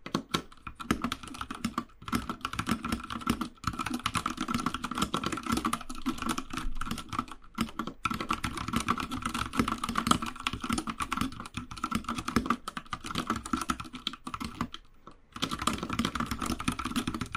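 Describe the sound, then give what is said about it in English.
Steady, rapid typing on a MacBook Air laptop keyboard, fairly loud, with dense clacky keystrokes and a few brief pauses between bursts; no voices. “I would be using it in role plays that require keyboards”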